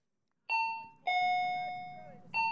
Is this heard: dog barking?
no